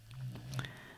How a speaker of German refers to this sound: Ah, ja, wenn du hier gerade so ein Schnarchen gehört hast, ähm, das ist mein Hund, äh, die unter meinem Schreibtischstuhl sitzt und äh, es sich gut gehen lässt.